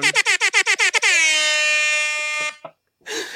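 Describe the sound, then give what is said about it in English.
A rapid series of about eight short air horn blasts, then one long sustained blare lasting over a second, loud, ending abruptly with a brief sputter and a burst of noise. “You came out with the the horn”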